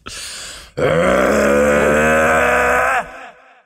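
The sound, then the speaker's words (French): A voice imitates the roar of a Mustang EcoBoost car engine: a brief breathy lead-in, then a loud, steady, low growling drone for about two seconds that trails off quickly. No words are spoken. “Non, c'est la Mustang EcoBoost qui rugit”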